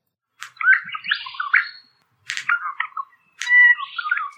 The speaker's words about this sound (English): now, a reminder this is what a proper Regent Honeyeater birdsong should sound like.